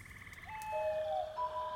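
toads croaking

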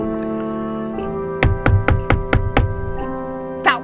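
knock

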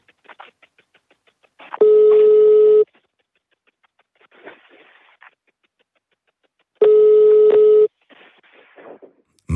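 telephone call ringing unanswered

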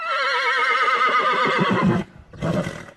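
horse neighing

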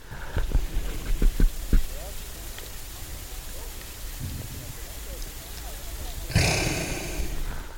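reindeer breathing up close

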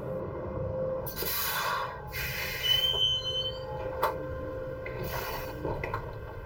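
tram running on rails

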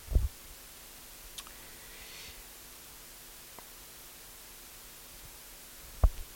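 keyboard clicking

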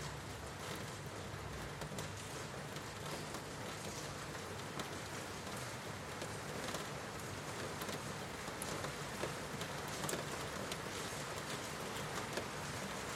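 rain falling

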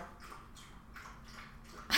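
dog lapping water

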